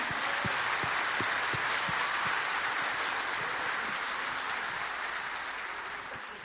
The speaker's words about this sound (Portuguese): Pode aplaudir o Senhor.